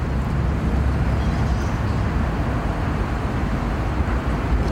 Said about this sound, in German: Wir stehen unter einer Brücke in Osaka.